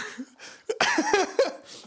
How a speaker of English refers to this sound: I'm, um, I'm choking over here.